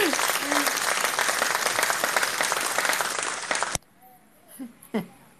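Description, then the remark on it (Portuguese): Dense, sustained applause from a crowd for Metapool on its anniversary, loud and steady for about four seconds before cutting off abruptly, followed by a few faint voices and a brief laugh. “Salva de é palmas bem? pra Metapool!”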